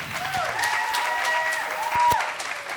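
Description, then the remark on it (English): A round of applause from an audience, steady dense clapping that holds for the full few seconds, with sustained cheering tones riding on top and a brief swell near the end. “I would also like you to give a round of applause to the beautiful Brunhilde.”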